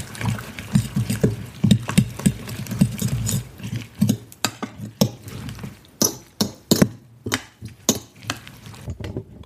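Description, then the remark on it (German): A fork or whisk beats an egg and herb mixture in a bowl to mix it well, making quick, rhythmic clinks and taps against the sides, moderately loud, with no talking. “Dann nochmal verquirlen, dass sich das alles gut vermischt.”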